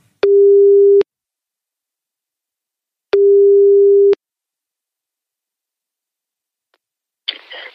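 A telephone ringback tone while calling: two steady, mid-low hums about a second long, separated by a couple of seconds of silence, followed by a short burst of rustling noise as the line picks up.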